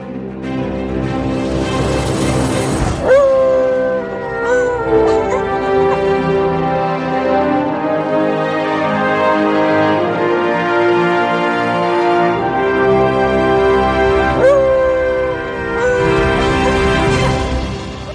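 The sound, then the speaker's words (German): An opening theme tune: a continuous, full-band piece of music with sustained harmonic tones and rich layered instrumentation, played loud for the whole stretch, with no talking over it. “Und das geht jetzt aber erstmal los mit der Hymne. Mit Manny und Lulu.”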